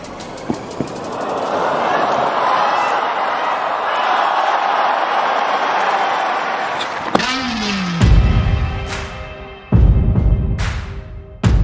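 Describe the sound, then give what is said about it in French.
A large crowd on Wimbledon's Centre Court applauds and cheers in a steady, dense roar for several seconds as Roger Federer and Rafael Nadal slap hands after their semi-final on 12 July 2019, then it cuts off and gives way to sharp thuds and ringing tonal sounds. “Sous les applaudissements nourris du cours central, deux légendes se tapent dans la main, se murmurent quelques mots, puis s'enlacent.”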